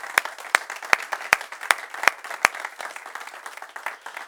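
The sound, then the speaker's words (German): A crowd applauds steadily in Jesus' name, sending greetings to listeners across the German-speaking world, dense overlapping claps, with a few louder sharp claps standing out near the start at a regular pace. “Und wir tun das jetzt mit einem kraftvollen Applaus bitte in Jesu Namen.”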